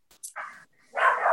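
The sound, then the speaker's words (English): Dogs bark in a quick, excited burst, a couple of sharp yaps followed by louder, fuller barks, with no talking over them; the speaker's own dogs. “Sorry about my dogs; they're just going nuts.”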